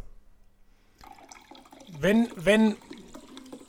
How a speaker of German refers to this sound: Ich schenke mir gerade ein ja, Wasser